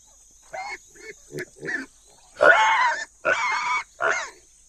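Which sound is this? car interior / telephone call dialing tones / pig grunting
pig grunting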